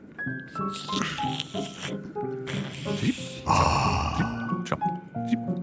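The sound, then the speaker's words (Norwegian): A growly voice imitates the loud snoring of a sleeping troll at Nesebroen, with rough grunts, snorts and groaning breaths that rise and fall unevenly over several seconds. “Jeg skal komme over, jeg syns jeg hører noen som sover Vent, jeg hører stemmer.”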